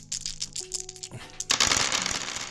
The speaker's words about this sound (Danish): Det er terninge ASMR, eller hvad det hedder. ASMR.